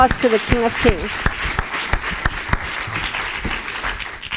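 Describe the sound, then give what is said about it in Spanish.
An audience at a Spanish-language church service breaks into loud, sustained applause to the King of Kings, dense overlapping claps with sharp individual hits, while a voice speaks briefly over the start. “So ese fuerte aplauso al Rey de Reyes.”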